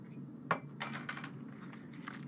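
Glass Coke bottles clink together as they are handled, a sharp knock followed by a flurry of bright, ringing taps and rattles over a low steady hum.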